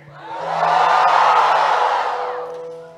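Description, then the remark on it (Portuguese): A church audience shouts together when the preacher asks those with a dream bigger than themselves to shout, a loud, sustained roar of many voices that swells for about three seconds and then fades, with no single speaker standing out. “Alguém que tenha um sonho que é maior do que você, grita aí, deixa eu ver.”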